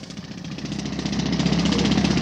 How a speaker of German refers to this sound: Seit etwa 1 Uhr heute Nacht rattern die Pressluftbohrer und bohren einen Graben quer durch die Ebertstraße hier am Brandenburger Tor. Der Graben ist etwa einen halben Meter tief und einen halben Meter breit.